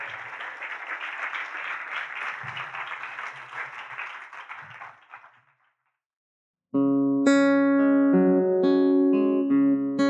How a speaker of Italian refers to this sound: e quindi io direi di introdurlo, un grande applauso … e di sentirlo, di sentire la sua musica vibrare dentro di noi.